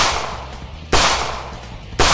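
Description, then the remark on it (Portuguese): Two loud, sharp revolver gunshots ring out about a second apart, fired point-blank at a man, each cracking over a dense, noisy background and trailing off into a reverberant wash, with no voices. “Cada tiro que você dá queima a roupa nele e dá um passo à frente.”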